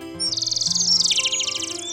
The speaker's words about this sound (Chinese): 突然听见一只知更鸟正在苹果树上唱着好听的歌。